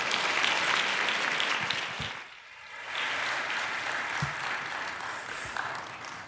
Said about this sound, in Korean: 이제 나오셔서 말씀 전해 주겠습니다. 큰 박수로 우리 환영하겠습니다.